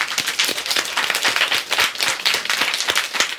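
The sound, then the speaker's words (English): Many people clap their fingers together to imitate rain, starting with one finger and adding a second and third as the rain grows harder. The result is a dense, steady patter: a continuous wash of sharp taps with no voices. “So, if you would all start with me with one finger, the rain's starting to fall.”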